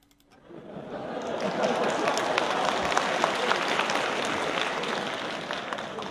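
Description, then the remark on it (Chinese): A theater audience at a crosstalk (xiangsheng) show breaks into applause for two performers after a brief moment of quiet. A dense, steady wash of many hands clapping holds at an even level to the end, without any voices. “感谢大伙儿的掌声！”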